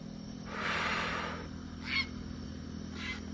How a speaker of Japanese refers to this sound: 今とんでもない鳥の大群がですね、こう僕のですね、上空をぐるぐる旋回しまして、危なかった。なんか今、めっちゃ怖かった。み、もう鳥が、黒鳥、黒い鳥が、めっちゃ僕の上空くるくる回ってましたね。